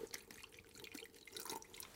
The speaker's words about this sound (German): Der Gummihandschuh schwabbelt im Wasser und jetzt mhm. füllen wir da mal ein bisschen Traubensaft rein und gucken mal, auch ob das dann unter Wasser überhaupt funktioniert, so ein Euter. Ja, ja, jetzt gucken wir mal. Achtung. Also, oben ins Rohr.